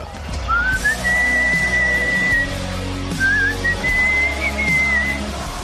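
A clear whistled melody, the intro of a rock hit, with long sustained notes and gentle slides, played over a steady low instrumental backing, with no one speaking.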